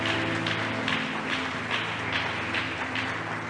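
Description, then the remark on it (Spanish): A crowd claps for the King (God) together in a steady rhythm, dense hand claps pulsing about twice a second over sustained low musical tones, loud and continuous throughout. “Aleluya, démosle palmas al Rey.”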